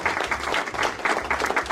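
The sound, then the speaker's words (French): A burst of applause, many hands clapping in a dense, steady patter at fairly loud level, with no voices rising above it. “je vous envoie des applaudissements”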